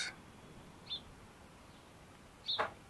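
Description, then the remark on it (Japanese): Wild birds chirp sparsely at a lake after dawn, quieter than the chorus before dawn, a few short calls spread out over a quiet outdoor background with no one talking. “あの、夜明け前の大合唱に比べると若干おとなしめになってますが、我が友人たちである野鳥たちも泣いてます。この音も入ってるかと思います。”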